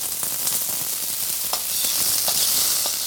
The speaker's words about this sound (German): Hier zu hören Ameiseneier, die in Butter geschwenkt in der Pfanne brutzeln und mit Limette und Chili abgeschmeckt werden.